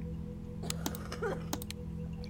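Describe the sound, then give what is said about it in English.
A handful of soft, sharp clicks from the computer mice of dozens of people hunched at computers tap out irregularly over a steady low hum, with no one talking. “They're all clicking their mice, no one speaking.”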